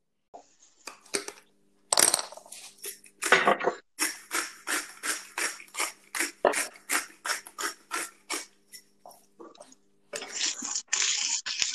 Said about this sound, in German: Das hört sich nach Essen an. Ja, ich habe gerade, äh, ich mache jetzt, ähm, weil ich muss ja auch noch was essen. Ich kann ja nicht nur Cocktails trinken den Tag über. Ich habe gerade mit der Salzmühle äh, über Kartoffeln gemühlt.